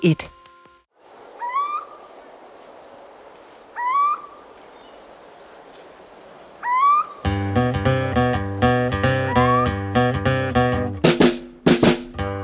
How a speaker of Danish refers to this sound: hvad er det, vi hører? Vi hører en kirkeugle. Ja, meget stemningsfuld.